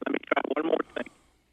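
A phone call breaking up: a tinny, narrow-band voice comes through in choppy, garbled bursts with brief dropouts, then cuts away into faint hiss after about a second.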